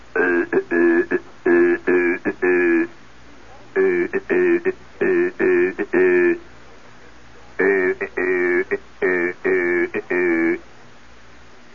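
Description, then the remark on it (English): A harsh, buzzy Morse code (CW) radio signal transmitted as raw AC instead of a clean whistle tone, keyed in loud, sharp bursts of dots and dashes, grouped in rapid runs with short pauses between them, rough and raspy, heard on earphones. “Well, this guy's signal was raw AC, and it went something like this.”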